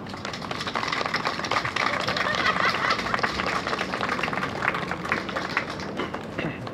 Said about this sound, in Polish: Dziękujemy serdecznie, proszę brawa.